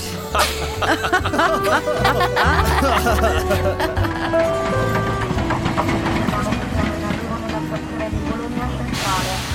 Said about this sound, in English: the next morning, my train pulls into Florence, and even though it's early, the city is already bustling and alive.